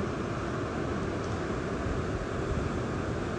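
A steady, low droning rumble of a ship passing far off on the water, blended with a constant hiss of wind and surf, unbroken throughout with no voices.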